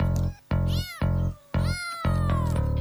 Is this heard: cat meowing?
yes